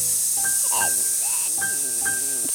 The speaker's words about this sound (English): Okay, I'll give you the spray.